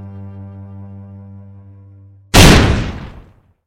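A single loud revolver shot in Aida's room cracks out after a steady, low droning tone, its echo rolling away over about a second before fading to silence.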